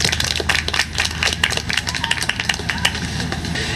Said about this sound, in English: So please give us a big round of applause